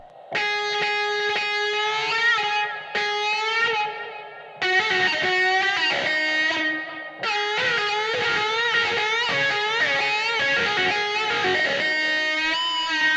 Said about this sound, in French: Tu branches un micro sur ton piano, tu le relis à une pédale wah-wah, tu connectes le tout à une surface de contrôle et roule ma poule.